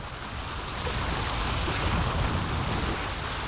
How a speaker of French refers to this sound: Nous commençons l'émission avec le son des vagues, un enregistrement de l'océan Pacifique de 1982. Les vagues pour balayer toutes les ondes négatives autour de nous et nous donner de l'énergie.